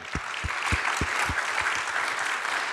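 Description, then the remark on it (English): A crowd of people clapping steadily, dense and continuous applause with a few sharper, heavier claps standing out, no voices over it. “Give him a hand.”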